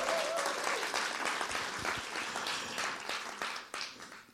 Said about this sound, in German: Wunderschönen guten Abend. Genau, Applaus.